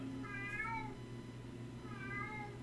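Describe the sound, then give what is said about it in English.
A cat named Max meows twice, each call a drawn-out, wavering cry, separated by a short pause, against a steady low background hum. “a little late on your cue, kid. Yeah, we've already well, passed the cat section”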